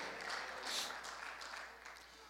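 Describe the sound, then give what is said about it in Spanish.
A crowd of people applauding the Lord during a sermon, a steady dense patter of many hands clapping at once, sustained, with a faint murmur of voices mixed in. “Somebody clap your hands unto the Damos Lord. un aplauso al Señor.”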